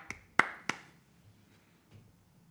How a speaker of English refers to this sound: That's more clapping for that right there.